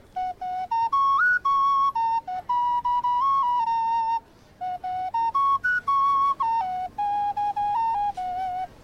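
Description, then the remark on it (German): A clear, breathy ceramic wind instrument like a clay ocarina or flute plays a simple melody alone, with short detached notes in two phrases separated by a brief pause, fairly loud, at a ceramic musical instrument workshop's stall at the 21st pottery market in Bonn, Germany. “Äh, das ist eine Werkstatt für keramische Musikinstrumente und wir beschäftigen uns fast ausschließlich mit äh, damit, wie man aus Ton Sachen machen kann, wo Töne rauskommen.”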